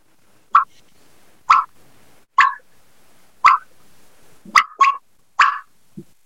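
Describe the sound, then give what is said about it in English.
A series of about seven sharp, popping bubble clucks made on a turkey call, each with a quick bubbly rattle, spaced roughly a second apart with a couple doubled up near the end. “And this is a bubble cluck. This is a cluck, another one, but this is everyone asks me about how to do this call.”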